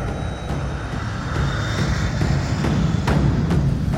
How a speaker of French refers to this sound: Accompagné du reste de la patrouille, j'arrive à rejoindre la base. Je me pose sur la piste. Mes pneus ont-ils brûlé On verra bien.